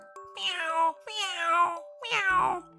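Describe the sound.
A voice imitates the pained yowling of a cat whose tail has been twisted beside a parrot's cage: three drawn-out, wavering cries, each rising then sliding down, loud with brief gaps between.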